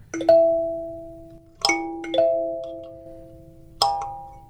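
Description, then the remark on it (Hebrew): A fingernail slides across kalimba tines from the fifth to the fourth to add a deeper bass sound, giving four bright metallic plucks whose deep notes ring and slowly fade, each stroke spaced apart with no talking. “אתה צריך להחליק ממש מהחמישי לרביעי, תוך כדי שאתה עושה את זה. נותן צליל יותר עמוק.”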